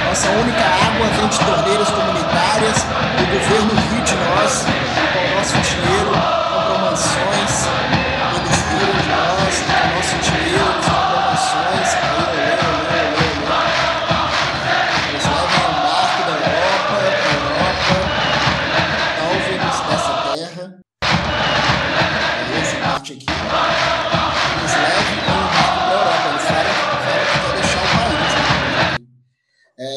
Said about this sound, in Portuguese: É uma, um exemplo aí, né, de uma torcida que tem seu canto, né, seu cântico aí, é um cântico politizado, né, podemos dizer sim, assim. Sim, bem, bem. E você pode notar que eles, em momento algum, exaltam o time, né?